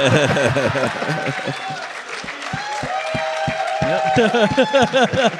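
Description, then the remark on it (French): An audience claps and cheers, with scattered sharp hand claps running through a lively mix of voices and whoops that stays loud for the whole stretch. “hey, une bonne main d'applaudissement pour.”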